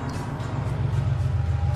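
A car's engine rumbles low and steady, growing slightly louder as it approaches, with no voices over the hum.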